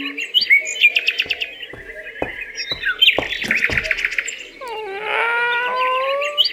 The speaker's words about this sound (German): Seine Hunde bellen auch schon.